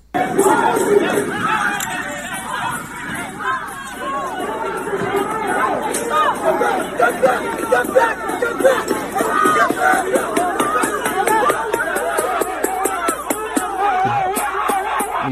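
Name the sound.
crowd screaming and shouting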